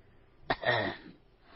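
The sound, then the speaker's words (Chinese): An old man gives one soft, short cough with a raspy, throaty edge, sounding once and then trailing off into quiet. No one speaks. “果然，老头一听到我的这句问话，还真停下来了，但是并没有回头，只是轻轻的咳嗽了一声。”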